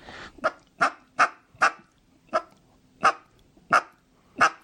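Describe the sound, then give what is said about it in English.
A duck call gives eight short, soft quacks, the first four quick and close together, the rest spaced out at a slower, even pace. Each quack is clear and nasal with no voices. “Uh, the other thing that is super good for finishing ducks in that situation, any situation, uh, especially if it's someplace where they're not going to hear a lot of feed, are just real small quacks.”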